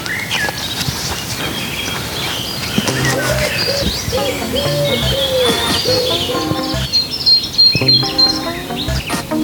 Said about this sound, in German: Hier zwitschert so schön.